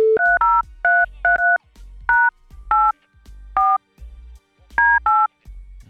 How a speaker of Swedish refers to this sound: Eh, det här numret kan man ringa, det är WhatsApp-nummer. Ehm, ja, vi tar och ringer helt enkelt och ser vart vi hamnar.